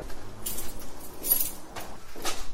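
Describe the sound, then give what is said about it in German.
A door leading outside is handled and pushed open, with a few soft scraping, rattling bursts over roughly two seconds against a quiet background, moderately loud. “nächste Tür, die jetzt nach draußen führt.”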